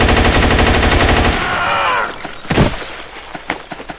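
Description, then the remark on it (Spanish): Loud, rapid automatic gunfire from a video game as the player shoots an enemy rattles off in a fast, steady burst for over a second, then tapers into a ringing tail, followed by a few scattered single shots and thuds. “Matar a este con el arma porque este es el de la pistolita.”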